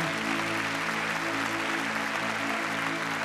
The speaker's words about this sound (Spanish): ¿Cuántos le podemos dar un fuerte aplauso a nuestro Señor?